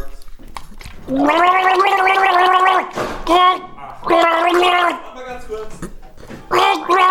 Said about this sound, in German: Mach's, warte, kannst du mal kurz trinken oder so, damit die Leute was hören? Das, das ja, warte, warte, ich trinke noch mal was, okay? Warte kurz.